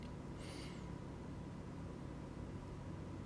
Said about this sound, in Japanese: エアコンの音が聞こえるのかわかんないんですけどエアコンの音と静かなホワイトノイズの中で